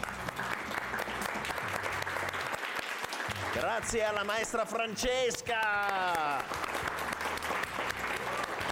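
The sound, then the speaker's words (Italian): Sustained applause in a studio as the hosts applaud their audience during a show's final goodbyes. A dense, steady patter of many hands clapping continues throughout, with a voice speaking over it in the middle. “Grazie al nostro pubblico e siamo noi che facciamo un applauso a voi.”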